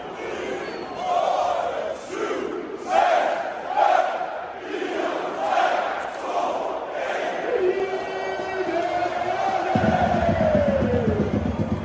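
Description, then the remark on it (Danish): A large football crowd chants a countdown in rhythmic, evenly spaced shouts, started 29 minutes and 50 seconds into the match, then breaks into a sustained roar as drumming and loud, dense crowd noise kick in near the end. “og så da der var gået 29 minutter og 50 sekunder, så begyndte de så at tælle ned, som vi kan høre på lyden her, til at bryde lidt mere ud i stemning.”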